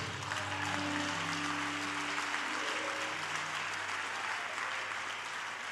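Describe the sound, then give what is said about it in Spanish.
An evangelical church audience applauds Jesus steadily for several seconds, a dense, continuous wash of clapping at a fairly even loudness, with faint sustained tones hovering underneath. “No se, no sé queden así tan evangélico den un aplauso a Jesús.”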